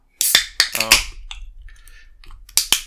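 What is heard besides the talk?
opening a beer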